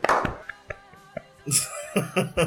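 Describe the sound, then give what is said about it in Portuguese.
A few sharp, irregular hand claps spaced out over a couple of seconds, followed by a denser burst of noisy, breathy sound with more quick slaps mixed in, moderately loud. “Eu batendo palmas pro seu inglês.”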